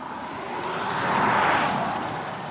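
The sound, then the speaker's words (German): A car passes by, its broad whooshing rumble swelling to a peak midway and then fading again, steady, with no one speaking. “warte mal, Auto, jetzt mal ein bisschen stillhalten.”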